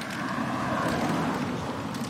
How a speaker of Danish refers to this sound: Øh, nu kommer der en bil.